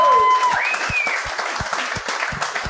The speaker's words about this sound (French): fait que bravo, on devrait l'applaudir.